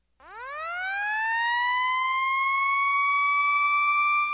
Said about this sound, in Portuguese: A Diponto tem a mais completa linha de sistemas de alertas sonoros do Brasil. Sirenes rotativas, digitais e audiovisuais, campainhas de prato e sinalizadores visuais de advertência.